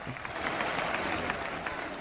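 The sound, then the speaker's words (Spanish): A football stadium crowd applauds Norwich's away fans after their goal countdown celebration, in a steady, dense wash of clapping that holds at an even level throughout, with a faint murmur of voices mixed underneath. “Y todo el resto del estadio les aplaude, por cierto.”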